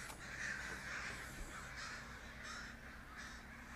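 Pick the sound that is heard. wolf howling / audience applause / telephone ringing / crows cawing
crows cawing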